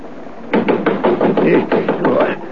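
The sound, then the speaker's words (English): A quick, steady series of about ten raps on a window glass, fairly loud, lasting around two seconds with no talking. “There came a rapping on the window”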